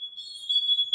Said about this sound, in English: Um, there's no that that's my fire alarm. It's okay.